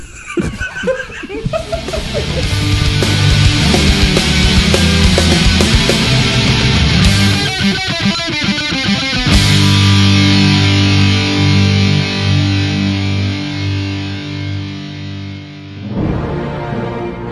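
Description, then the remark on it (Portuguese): A loud, busy opening jingle of heavily processed, distorted music with laugh-like effects mixed in, shifting midway into sustained droning tones before a brief final flourish. No one speaks. “Se você, ó, se prepare, vista sua roupa Enquanto toca a vinheta, você busca um vinho na geladeira ali, porque vai estar.”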